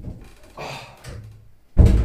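A door is pushed open: soft rustling and handle movement, then a loud thud as it swings and knocks near the end. No one speaks.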